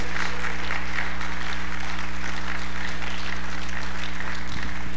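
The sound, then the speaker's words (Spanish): An audience applauds Jesus Christ of Nazareth steadily for several seconds, a dense, sustained patter of many hands clapping at fairly strong volume over a low, constant electrical hum, with no voices on top. “O oh, cielo, cada un fuerte aplauso, por favor, a Jesucristo de Nazaret.”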